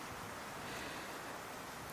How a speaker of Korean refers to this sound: 어디선가 한 줄기 바람이 불어오네요.